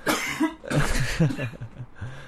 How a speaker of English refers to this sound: okay, I think you had a news article you want to read, and while you do that, I'm going to go cough and die over here.